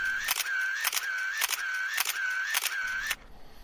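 A camera shutter fires six times in a steady, even rhythm, each sharp click separated by a brief mid-pitched mechanical whir, with no voices.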